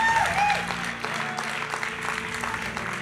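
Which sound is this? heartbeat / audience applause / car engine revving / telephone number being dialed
audience applause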